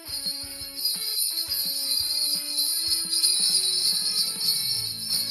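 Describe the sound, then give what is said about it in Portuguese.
A small Christmas bell kept on a desk jingles steadily for several seconds, a bright, shimmering ring, fairly loud with no one talking over it. “Eu tô com o sininho de Natal desde o episódio passado aqui.”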